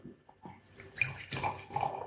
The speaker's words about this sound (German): Und ein dunkles Weißbier, muss man dazu sagen. Tja, Weißbier jetzt so einschenken? Ja, hilft nichts. Rein damit.